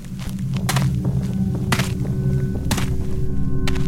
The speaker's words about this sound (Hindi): लेकिन अंदर के कमरे से कुछ गिरने की आवाजें आई फिर एक किसी के धीमे धीमे कदमों के चलने की आवाज आई